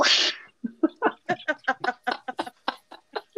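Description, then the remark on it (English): After a brief breathy burst, a person makes a quick run of short, clipped meowing sounds imitating a cat, fairly loud, with a bouncy, rhythmic pace. “In the middle of the episode, you're just gonna hear meow”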